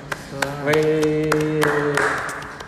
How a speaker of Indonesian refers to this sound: Tepuk tangan semuanya.